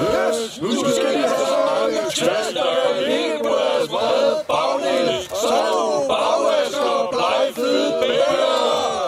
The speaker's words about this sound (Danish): Nu skal de have tæsk, råbte kongen og løftede sit svær og alle soldaterne løftede deres spyd og svær og møggreb, og hvad de ellers havde, og råbte i kor.